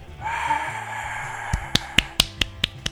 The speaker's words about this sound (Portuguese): Palmas.